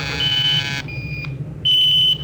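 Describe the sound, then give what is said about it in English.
An automatic radio sender beeps out a tracking signal: three steady, high-pitched electronic tones of varying length, the last one loudest, over a low background hum with no talking. “We're switching to the automatic sender now so you can track us in.”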